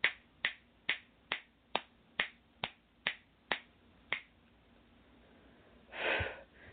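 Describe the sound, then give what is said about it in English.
About ten crisp finger snaps come in a steady, even rhythm with no talking, followed after a short pause by a brief breathy rush of air. “And I do a lot of snapping, clearing, just FYI, and sometimes clapping to clear the energy.”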